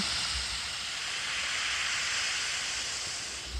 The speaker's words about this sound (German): Also da sind zum Beispiel, ich versuche es mal kurz ans Mikrofon zu halten. Wenn man die App schon aufmacht, kommt so ein Meeresrauschen.